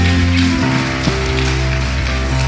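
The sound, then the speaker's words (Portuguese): An audience applauds to celebrate the name of the Lord in a dense, steady wash of clapping that holds at an even loudness throughout, with sustained musical tones droning underneath. “Você pode aplaudir e celebrar o nome do Senhor.”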